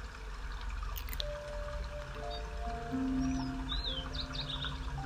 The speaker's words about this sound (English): The birds are twittering.